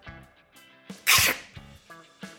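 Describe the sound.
A voice imitates an axe chopping into a pub notice board with one sharp, breathy burst of noise, loud, over a soft tonal background before and after.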